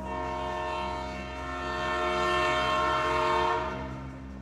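A train horn blares with a steady, sustained chord over the heavy rumble of a passing train, swelling louder midway before easing off, with no voices present.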